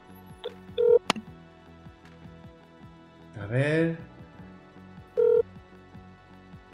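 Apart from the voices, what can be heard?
phone call ringing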